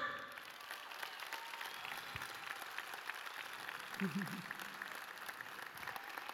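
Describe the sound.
An audience claps continuously for several seconds, a dense, steady wash of hand claps at an even loudness, with a faint voice rising briefly beneath it.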